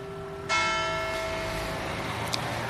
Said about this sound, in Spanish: Ah, sí, mira, si hay campanas. Qué bonito. Ahí están las campanas de las 11 de la mañana, no, de las 6 de la tarde.